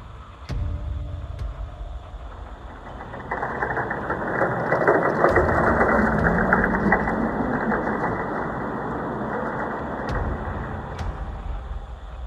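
A black Hummer SUV fitted with many lights drives down an empty street at night, its engine rumbling as it approaches, swelling into a broad roar as it passes, then easing off, with no voices over it.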